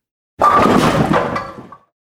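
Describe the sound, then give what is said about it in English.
A bowling ball crashes into pins with a loud, clattering burst of wooden knocks and rattles, lasting about a second and a half before quickly dying away. “Bowling pins!”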